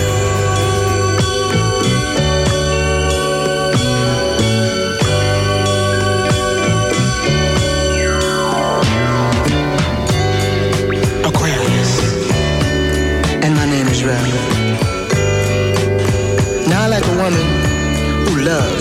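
A listener's requested smooth soul song plays on air at full volume, with steady bass, sustained chords and a gliding instrumental sweep partway through, continuing unbroken from start to finish.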